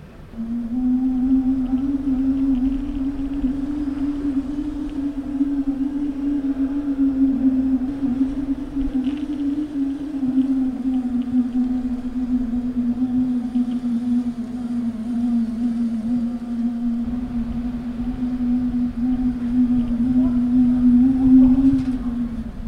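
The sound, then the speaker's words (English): A singing bicycle prototype's dynamo-driven tone hums steadily for the whole stretch, a single sustained pitch with a faint wavering edge, rising slightly near the end over a low rolling rumble. “a singing bicycle prototype”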